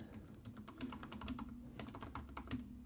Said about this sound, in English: I know this is so interesting hearing me talk or hear me type.